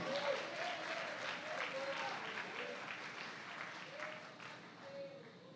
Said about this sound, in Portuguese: Meus irmãos, me ajude aqui, levante as suas mãos, aplauda Jesus, faz alguma coisa aí.